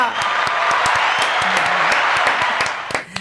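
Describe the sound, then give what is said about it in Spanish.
Sustained applause from an audience welcoming a guest on the program Piensa en Grande, Persiste, Atrévete y Emprende, a dense wash of many hands clapping at a steady loud level, with a few sharper individual claps standing out, fading slightly at the very end. “¡Aplausos familia!”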